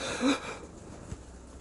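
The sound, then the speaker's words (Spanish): A harsh, raspy cough bursts out with a wheezy, breathy edge, fading within about half a second into near silence broken by one faint click. No one speaks. “Me han entrado las toses de la muerte.”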